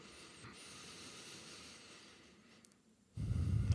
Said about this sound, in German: nehmen wir uns wieder gerade einen Moment Zeit, überhaupt erstmal anzukommen. Schnaufen mal tief ein und aus.